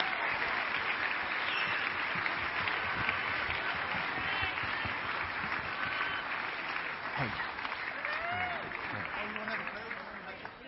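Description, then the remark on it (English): Sustained applause from a large church audience for the children and the children's ministry team, at a steady level for about ten seconds, with scattered cheers and voices mixed in before it begins to taper off. “kids a big round of applause and our children's ministry team a great big round of applause.”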